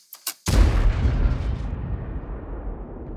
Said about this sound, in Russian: Например, э, возьмем на примере выстрела, да. Вот выстрел, как звучит целиком. Это large калибр. Слушаем звук.